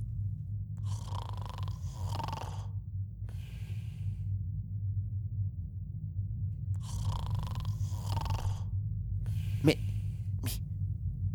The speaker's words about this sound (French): c'est quoi ce bruit T'entends Ah oui, ça fait flipper On dirait un aspirateur Ça vient juste de là, ne bouge pas Je vais aller jeter un œil. Ne t'approche pas trop Tu pourrais te faire aspirer